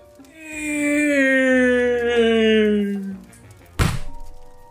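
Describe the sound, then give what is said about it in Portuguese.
A long, wavering tone slides steadily downward for about three seconds, then a single heavy punch thud lands loudly in a boxing ring, knocking out Mac, with a brief rumbling decay. “O Mac desmaiou depois desse socão e tem um russo com o joelho mordido, sangrando, olhando para vocês.”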